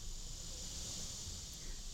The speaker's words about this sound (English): I see time kind of as like, oh, it's cicada season. Hear them?